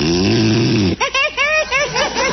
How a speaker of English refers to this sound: you said you wouldn't snore. Yes, dear. Turn over on your side.